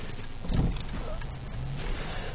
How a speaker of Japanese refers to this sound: 右からもまあ、ひんきりなしに車が来るし、左はね、トンネルみたいな感じで見えにくいんですよね。